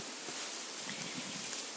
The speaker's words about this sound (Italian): Il vento sta facendo il suo, il suo lavoro.